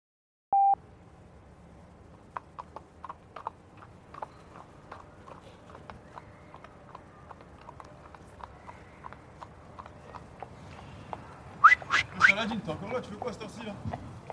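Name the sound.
horse hooves clip-clopping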